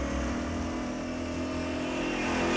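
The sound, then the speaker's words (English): A Mercury car engine runs with a steady, low, throaty rumble. It swells slightly near the end as if revving up. No one speaks. “He's running to the Mercury. Is this a great car?”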